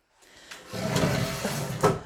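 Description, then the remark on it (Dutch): A chair is moved aside, scraping and sliding across the floor for over a second, ending in a sharper knock as it settles. No one speaks. “Want, ehm, even een stoel aan de kant zetten.”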